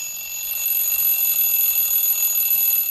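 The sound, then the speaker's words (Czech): An alarm clock rings continuously for about three seconds, a loud, bright, steady jangle with no pauses and no voices. “Voku zvoní budík.”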